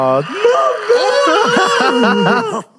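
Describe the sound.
A man's voice mimics a child who has lost a tooth whimpering and crying, with wavering, sobbing pitch glides that rise and fall in a continuous, exaggerated wail lasting a couple of seconds, fairly loud.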